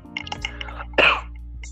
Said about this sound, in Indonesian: Kalau gua anjing batuk lagi goblok